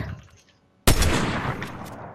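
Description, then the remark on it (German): After a quiet low rumble, a single loud, sharp sniper rifle shot in a video game cracks out and rolls into a long, booming echo that fills the rest of the moment. No one speaks. “Wir schießen mal ein paar Sniper-Schüsse.”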